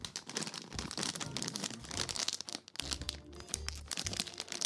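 A bag of pepper pork bone soup flavoured potato chips is torn open and crumpled during an unboxing, producing loud, continuous crinkling and crackling with sharp rips over several seconds, without any voices.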